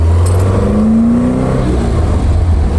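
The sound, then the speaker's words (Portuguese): An Alfa Romeo car engine with Weber carburetors revs loudly, its pitch rising steadily as it accelerates, with a deep continuous rumble underneath and no talking. “A ergonomia da, das alfas é incrível. E esse som, hein?”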